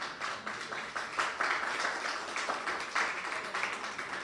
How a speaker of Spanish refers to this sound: aplauso al hermano